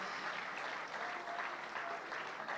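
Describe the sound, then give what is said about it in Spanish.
A crowd at a youth congress applauding loudly and steadily in praise to the Lord, a dense wash of many hands clapping at once with no pauses or voices breaking through. “Tome su asiento, de un aplauso fuerte de alabanza al Señor.”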